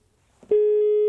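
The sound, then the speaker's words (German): After a brief rustle, a loud telephone ringback tone of an outgoing call starts halfway through: a single steady electronic pitch that holds unbroken to the end, with no talking. The telephone was soldered together by hand. “Oh, Wie zum Beispiel dieses Telefon.”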